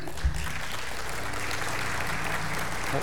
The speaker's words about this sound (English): well, you are clapping, but you don't know what you're clapping for yet. So, but actually, it is a good thing.